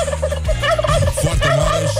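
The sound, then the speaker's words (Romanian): A turkey gobbles loudly, a rapid, bubbling warble that rattles on continuously for about two seconds with no voices or other sounds around it; the turkey pardoned by US President Donald Trump before Thanksgiving. “Uh, președintele american Donald Trump a grațiat uh, primul său curcan din mandat înainte de ziua recunoștinței.”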